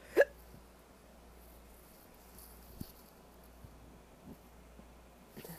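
A single sharp hiccup near the start, followed by quiet low background hum with a few faint small clicks and shuffles.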